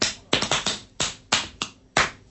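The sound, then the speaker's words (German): With the shirt pulled up, hands drum on a bare belly at a beat of about 110, about eight sharp, fleshy slaps in an uneven, quick-then-spaced rhythm, fairly loud and with no voices. “Auf meinem nackten Bauch trommel ich mir”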